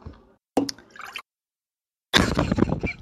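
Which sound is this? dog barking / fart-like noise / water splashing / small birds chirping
water splashing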